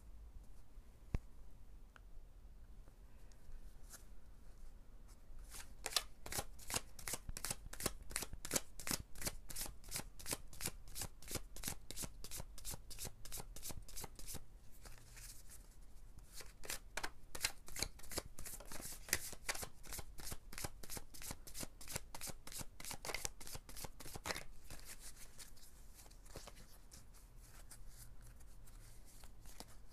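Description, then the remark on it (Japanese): A deck of oracle cards is shuffled for most of the half minute, a dense run of crisp riffling flicks that starts after a few seconds of quiet and keeps a steady, brisk rhythm. “今日はこれお美しい淑女のカードが出ました”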